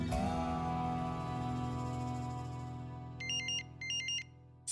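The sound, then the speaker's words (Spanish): A sustained musical drone plays, then an electronic phone ringtone cuts in near the end with two short, bright warbling bursts, clear. “Six months after I moved to Los Angeles, someone finally called me back.”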